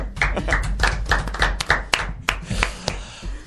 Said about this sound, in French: bravo ah, Je pense que vous pouvez l'applaudir.